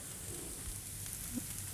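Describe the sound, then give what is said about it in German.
Steady, crackling sizzle of tofu frying in a pan, a dense hiss of popping oil running continuously with no one speaking. “Ich wollte es aber euch heute mal in der Pfanne zeigen, damit wir nicht auch noch den Ofen anschmeißen müssen.”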